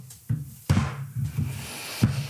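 A wooden table creaks and groans several times in a slow, uneven rhythm, fairly quiet, with no one speaking.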